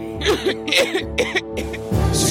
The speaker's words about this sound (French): Le cours avait débuté et quelques élèves commençaient à tousser.